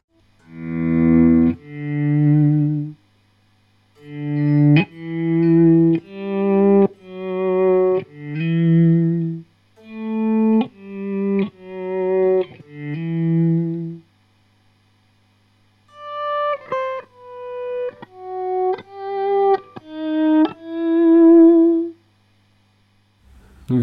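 Guitar notes with the initial attack removed, each one swelling in softly like a bowed tone, played one after another in a slow melodic line with a short pause midway.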